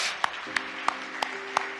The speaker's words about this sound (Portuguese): Uma vez que estén de pé, dê um aplauso a Cristo, Ele merece, verdade?